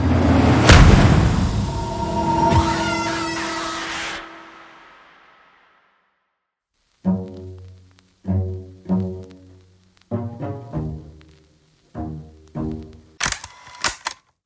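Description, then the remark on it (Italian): A single loud, sharp pistol shot, a man shooting himself at the temple in a dramatized scene, bursts out and rings away over several seconds. After a pause, a series of short, punchy musical stabs follows in an uneven rhythm. “Eh, ma, ma, ma perché si è sparato?”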